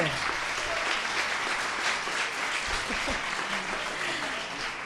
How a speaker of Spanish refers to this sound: Muy bien. Un, aplauso, por favor.